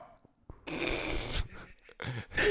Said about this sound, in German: Ich musste gerade einen Husten unterdrücken. Das hat sich echt ein bisschen angehört, dass man so Kotzreiz unterdrücken muss. nee, ich hätte sonst wieder gehustet.